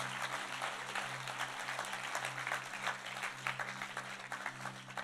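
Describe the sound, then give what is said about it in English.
A crowd applauds steadily to give praise, many hands clapping in a dense, sustained patter over a low, steady hum, with no voices standing out. “You want to clap. You want to, you want to give him praise.”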